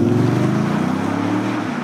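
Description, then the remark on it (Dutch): A V8 car engine rumbles loudly, a deep, steady throbbing drone under a rushing wash of wind noise, holding nearly constant before easing slightly at the end. “Ja, acht cilinders, V8.”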